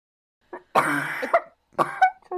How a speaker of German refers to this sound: Hast du genießt oder gehustet? Das ist bei mir ganz oft ein Mix. Gesundheit. Danke. Ich niese und huste in einem. Ich spare mir da was.